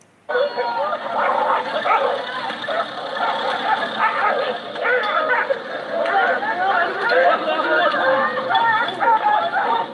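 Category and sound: animal, dogs fighting and barking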